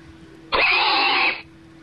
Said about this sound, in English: We've got our field day pig here. Listen here, you. Did you hear him there? could, no. could you hear him okay over the over the telephone?